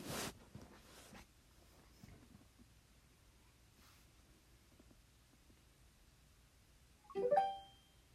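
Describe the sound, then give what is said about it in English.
A short, bright Google Home Mini connection chime rings out once near the end, confirming the speaker is connected during setup in an app, after several seconds of quiet with only faint handling noise and a brief rustle at the start. “You hear that little chime?”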